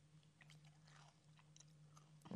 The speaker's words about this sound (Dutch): Hoor je op de camera mijn crackers?